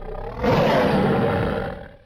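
A tiger's deep, rumbling roar starts abruptly after a brief low murmur, holds loud and gravelly for about a second and a half, then fades out. No one speaks.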